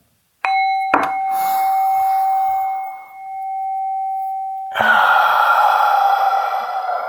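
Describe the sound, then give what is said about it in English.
A ringing bell tone sustains while a long, breathy inhale draws in through the nose, followed by a loud, exaggerated exhale through the mouth, a cleansing breath in a guided breathing exercise. No one speaks. “So we're going to inhale through the nose and exhale through the mouth, kind of loud and exaggerated, just to let some things go.”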